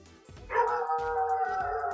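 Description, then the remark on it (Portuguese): A dog lets out a loud, drawn-out vocalization, more a sustained howling bark than short yaps, holding for over a second with no one talking over it. “frase que o cachorro latiu.”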